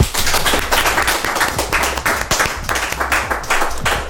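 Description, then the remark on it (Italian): Sustained final audience applause at the close of a show, a dense, steady wash of many hands clapping at a fairly loud level for the full few seconds, with no voices speaking over it. “Ringraziamo il pubblico al quale chiediamo l'applauso finale.”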